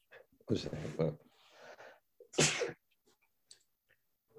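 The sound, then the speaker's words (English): Two loud sneezes in a sneezing attack break the quiet, the first with a long breathy wind-up and the second sharp and explosive, followed by soft sniffs and small mouth sounds. “The sneezing attack made me lose my”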